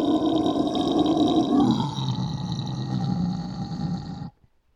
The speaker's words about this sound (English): if I did some low pitch screams right now, they'd sound fucking monstrous through this thing